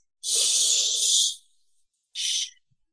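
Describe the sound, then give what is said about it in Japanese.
A breathy hushing "shh" is drawn out for about a second, then after a pause comes a shorter second "shh". Both are fairly loud, with no talking. The sound demonstrates the voiceless English SH sound, made with slightly rounded lips like the shush for asking people to be quiet. “で、こう、静かにしてくださいの C みたいな感じで、”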